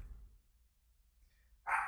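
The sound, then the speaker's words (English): After a quiet stretch with faint low rumble, a single sharp bark from a happy female dog bursts out near the end, loud. “The dog's happy. I don't Dog's- know if you heard her.”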